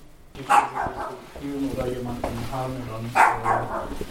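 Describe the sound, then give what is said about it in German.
A dog gives two sharp, loud barks a few seconds apart, while muffled voices murmur underneath throughout. “Und der Hund bellt immer noch.”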